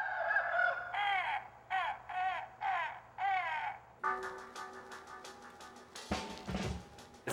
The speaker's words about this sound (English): So this is the multi-animal. Um, it was influenced by those uh, Sony dogs, the Aibo. It doesn't actually move, it just makes sounds, and it's not a specific animal, it's the multi-animal.